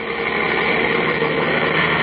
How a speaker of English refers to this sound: There's a truck just arrived with a delivery.